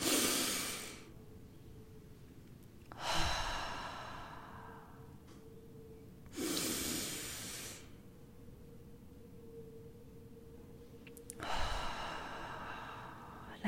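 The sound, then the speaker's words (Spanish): Slow, deep breaths drawn in and let out, four long airy rushes spaced a few seconds apart with quiet pauses between them, fairly loud, with no talking. “Cuando, cuando te sientas estresada, ansiosa, respira, conecta con tu respiración profunda, realmente profunda.”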